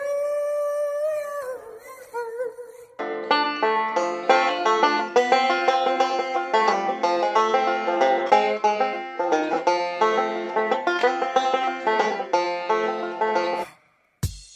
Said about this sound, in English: It's an instrument. It's got strings on it. It's twangy. It's a banjo. That's the sound a banjo makes. That's one of the sounds a banjo makes.